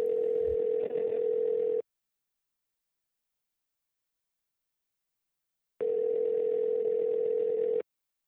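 A telephone ringback tone from an outgoing call to a nature photographer living in Brazil: two steady, loud tone bursts of about two seconds each, separated by a long silent pause, with no voices.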